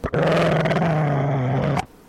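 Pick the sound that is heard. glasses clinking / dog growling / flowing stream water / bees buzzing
dog growling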